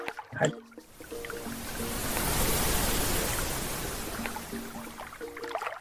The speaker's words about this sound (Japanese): そんな話してるとね、はい、アウトからその波長の合う波が来たんで、ましたね。